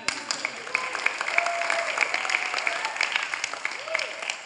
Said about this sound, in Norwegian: Jeg syns du skal gi en skikkelig klapping.